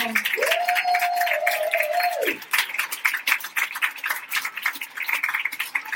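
An audience bursts into dense, steady applause for someone's brother-in-law, lasting several seconds, with one long sustained whoop or whistle ringing over the clapping during the first two seconds.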